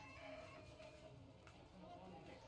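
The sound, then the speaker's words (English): A terribly sick rooster crows in a strained, ragged way, sounding hoarse and unwell, over a dense, noisy background that continues throughout the short clip. “Oh, I heard that terrible, terribly sick rooster?”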